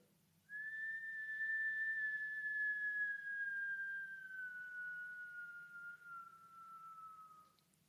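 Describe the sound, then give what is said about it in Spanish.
A single long whistle is blown out on an exhaled breath during a breathing exercise, starting bright and slowly sliding lower in pitch over about seven seconds, steady, with a faint low hum underneath. “Vamos a inhalar por la boca haciendo una O y vamos a exhalar con un chiflido.”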